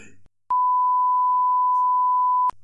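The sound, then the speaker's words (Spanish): A steady, loud censorship bleep holds a single pure tone for about two seconds, covering someone's speech, with faint traces of the talking underneath and brief voice fragments before and after. “Te lo respondería acá, pero voy a respondértelo así y lo vamos a borrar, se va escuchado un pi en el medio”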